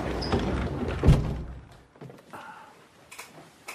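A door swings shut with a solid thud, followed by a short stretch of quieter room noise and faint shuffling movement.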